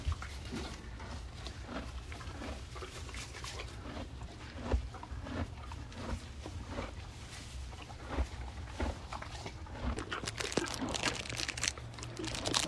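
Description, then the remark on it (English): Crinkling of a plastic peppermint wrapper held in a hand and then torn open, scattered brittle crackles that grow denser and busier near the end, over a low steady background rumble. “The plastic of the peppermint in my hand crinkles like wrapping paper on a present being unwrapped on Christmas morning.”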